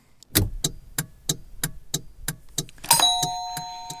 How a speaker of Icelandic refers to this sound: Þetta voru stefnuljós. Yeah. Mm. Já, já, tiktak, okay, tiktak.